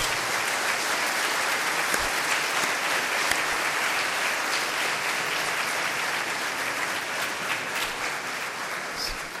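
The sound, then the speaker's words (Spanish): A crowd applauds steadily and warmly for the full length, a dense, sustained wash of clapping from many hands with no one speaking over it, welcoming this year's confirmation students, boys and girls who went on a retreat in Teotepec. “Los recibimos con un fuerte aplauso a estos chicos.”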